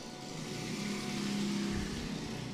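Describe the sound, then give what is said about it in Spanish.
A motorcycle passes by, its engine a steady droning hum with a slight rise and fall in pitch, fairly loud and continuous for a couple of seconds with no talking over it. “Gracias, señora Moto, por pasar en estos precisos momentos.”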